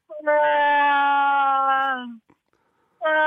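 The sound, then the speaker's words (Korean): A voice imitates a female cat's meow with a long, steady, nasal wail that sags in pitch at the end, then a second drawn-out cry starts after a short pause. “본인 생각에도 이게 지금 암고양이 다시 한번 들어볼게요. 암고양이.”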